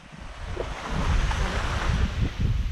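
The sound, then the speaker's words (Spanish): Steady roar of sea waves washing against the shore, filmed in front of the sea for a video at the end of a holiday, mixed with gusty wind buffeting the microphone in low rumbling bursts, continuous and fairly loud with no voices. “Si nuestros oyentes han escuchado o han visto este vídeo, el, fondo es el mar, está grabando ese, ese, ese vídeo eh, terminando sus vacaciones enfrente del mar.”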